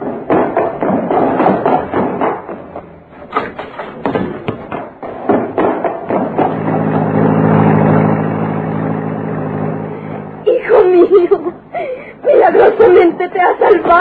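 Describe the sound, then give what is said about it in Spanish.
A car engine rumbles into life and holds a steady, droning hum for several seconds as the car pulls away, with agitated voices talking before and after. “Oigan, es un auto que se arranca.”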